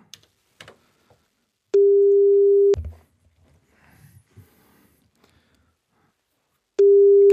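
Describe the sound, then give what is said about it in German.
A steady, mid-pitched telephone ringback tone sounds for about a second, falls silent for several seconds amid faint background shuffling, then starts again, while a call is placed to someone's father. No one speaks. “dann rufen wir den mal an”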